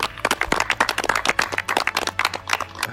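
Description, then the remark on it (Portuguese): An audience bursts into steady applause, many hands clapping together in a dense, crackling patter that stays fairly loud and even for the whole stretch. “Então, eu queria uma salva de palmas e um agro abraço para a gente finalizar.”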